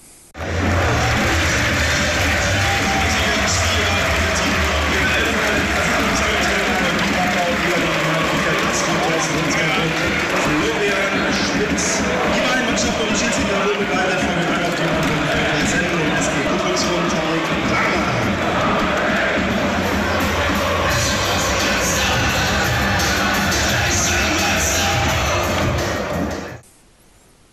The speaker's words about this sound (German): dass Preußen Münster wieder zurück ist im bezahlten Fußball, dritte Liga. Die haben das heute groß gefeiert.